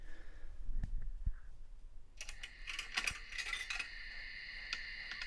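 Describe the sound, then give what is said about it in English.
A tape deck gives a couple of sharp mechanical clicks, then starts running with a steady whirring hum and light clattering. It sounds fairly quiet, with no one talking. “That's the sound of a tape deck, everybody.”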